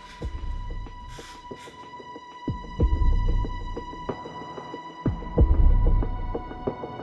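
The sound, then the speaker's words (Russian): An electronic music track with a deep, throbbing bass beat pulsing in repeated swells beneath a steady droning hum and a few airy swishes; no one speaks. “вы видите, как выглядит щетка этого трека.”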